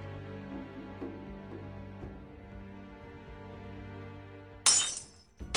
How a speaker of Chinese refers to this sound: 蓝静怡又拿起花架上的紫兰插花瓶摔向地面，然后气呼呼的坐了下来。